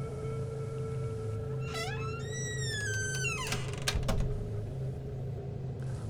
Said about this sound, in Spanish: Escuché que regresó al armario y cerró la puerta.